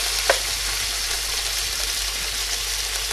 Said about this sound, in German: So, das Ganze tun wir jetzt erstmal anbraten. Selbst wenn das richtig heiß ist, meistens zieht das Fleisch viel Wasser.